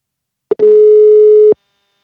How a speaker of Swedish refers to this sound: Vi ska nu ta och ringa upp eh, kvällens intervjuperson,